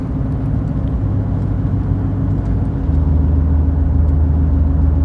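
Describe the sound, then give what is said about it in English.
A big truck and trailer rolls past, a steady low engine rumble with droning tones that deepen and swell partway through, with no one talking. “Let me see if I can find it after this this big truck and trailer passes me.”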